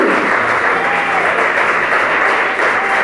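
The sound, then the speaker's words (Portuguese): An audience at a church service breaks into sustained, loud applause for God, a dense wash of many hands clapping steadily for the full length with no pause and no voices standing out. “E eu quero que a igreja dê uma salva de palmas para esse Deus.”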